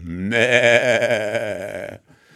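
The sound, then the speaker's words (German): A single long, wavering sheep bleat, loud, lasting under two seconds with a trembling, nasal tone, followed by quiet. “Es war einmal ein Schaf.”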